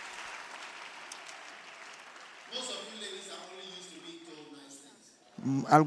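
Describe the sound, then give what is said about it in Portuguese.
A church audience applauds during a sermon with a steady, even patter of clapping that gradually thins out as a man starts talking over it, his voice rising louder at the very end. “É bom que são aplaudir.”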